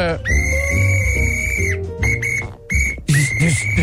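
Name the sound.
referee's whistle blast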